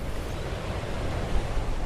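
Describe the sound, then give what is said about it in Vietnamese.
Steady outdoor seaside rush of wind and surf by a sign leading to the sea at Gò Cỏ village, a dense, even wash of noise with slight swells in loudness and no voices. “Thưa quý vị, đây là một cái câu khẩu hiệu ờ, trên tấm bảng dẫn ra biển ờ, nơi mà tôi và ờ,”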